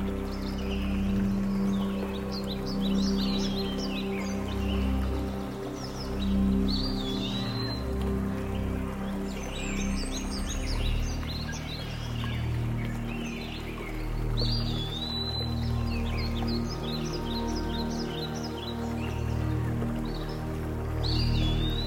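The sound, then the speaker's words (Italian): Forest ambience: many birds chirp and trill in overlapping bursts over a steady low rush of water or wind, with no one speaking. “MINDFULNESS: Meditazione Guidata nel Bosco”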